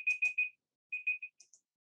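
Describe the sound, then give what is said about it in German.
A timer alarm beeps in two quick bursts of three electronic tones, separated by a brief pause, with a few faint higher chirps trailing after. No one speaks. “das ist jetzt mein Timer”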